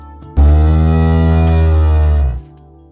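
A single long, loud moo from a big milk cow, a deep sustained bellow lasting about two seconds with a steady tone before it fades out, with no talking.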